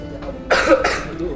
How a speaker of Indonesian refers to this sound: batuk batuk nih ini kalau sakit lagi ya